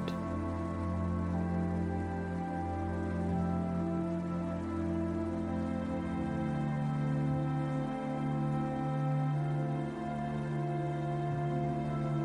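cascading waterfall water

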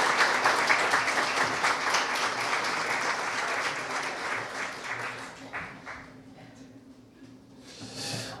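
audience applause

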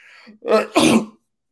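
cough

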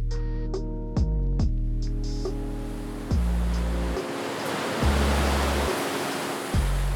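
ocean waves

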